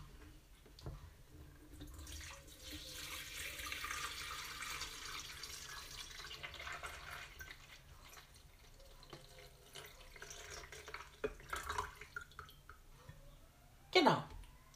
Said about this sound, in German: Ich mache den Deckel von der Kanne zu, damit nichts daneben geht. Damit wirklich nur aus diesem Ausgießer von der Teekanne das Wasser rauskommt. Und jetzt fülle ich die mit kaltem Wasser gefüllte Teekanne in den Wasserkocher um.